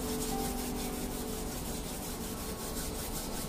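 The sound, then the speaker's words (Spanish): Palms of hands rubbing together in a steady, continuous back-and-forth friction, a soft swishing rasp that keeps an even rhythm throughout with no talking. “Y tan solo froto las palmas de mis manos, de las manos, imaginándonos allí alrededor de ese fuego, con mis plantas de los pies pegaditas al piso.”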